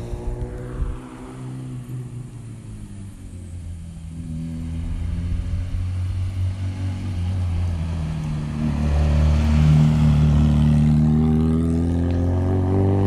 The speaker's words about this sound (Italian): Fiat 127 qua passano piano eh, perché questa è una tappa di trasferimento praticamente ma più su so che si scannano questo sta andando un pochino più forte due, tre ammazza quanti sono?